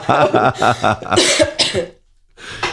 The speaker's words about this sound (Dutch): Af en toe hoor je mij trouwens een beetje snotten en hoesten.